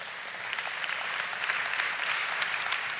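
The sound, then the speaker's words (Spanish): A crowd claps steadily, a dense, even patter of many hands sustained throughout at moderate loudness, with no voices over it. “No, este aplauso no sirve.”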